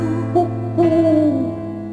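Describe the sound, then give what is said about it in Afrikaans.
An owl hoots twice, a short note and then a longer one that slides downward, over a steady low background hum. No one speaks. “En sê nou daar's 'n uil.”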